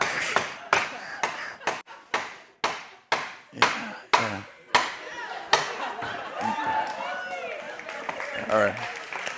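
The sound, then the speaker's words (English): A knife chops all the way through a spaghetti squash and sticks into the wood below in about a dozen sharp, heavy strikes at an uneven rhythm, loud, before clapping and excited voices take over toward the end. “You're welcome to take your spaghetti squash if you want.”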